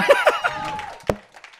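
An audience cheers and claps briefly, with a few high whoops and voices over scattered hand claps, and one sharp clap standing out before the noise fades.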